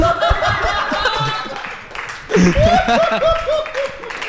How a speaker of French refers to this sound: On applaudit.